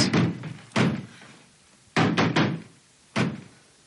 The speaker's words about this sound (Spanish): Max parece estar clavando algo contra la puerta. Luego se marcha.